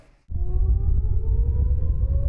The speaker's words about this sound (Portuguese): No dia 7 de outubro, eles acordaram às 6 e meia da manhã com a primeira sirene do Domo de Ferro, o sistema de defesa que alerta sobre os ataques com foguetes.